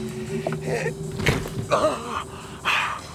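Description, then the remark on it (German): A man's heavy body thuds onto a meadow after he climbs over an old cemetery wall into a park at night and drops down the other side, followed by brief scuffling and rustling movements over a low steady hum with no talking. “Er zog sich hoch und ließ sich auf der anderen Seite zu Boden fallen.”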